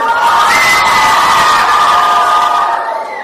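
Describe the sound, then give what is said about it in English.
A group of children cheers loudly together for a correct answer in a boys-versus-girls Bible quiz, a sustained burst of high-pitched shouting and whooping that holds steady for a few seconds before easing off slightly at the end. “Give me a cheer.”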